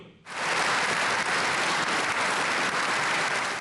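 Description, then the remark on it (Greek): A parliament's Prime Minister, ministers and members stand up to applaud the Ukrainian President. The loud, sustained applause starts abruptly after a brief quiet moment and holds steady, dense clapping throughout, with no voices standing out. “Ο Πρωθυπουργό, Υπουργοί και βουλευτέ σηκώθηκαν όρθιοι για να χειροκροτήσουν τον Ουκρανό Πρόεδρο.”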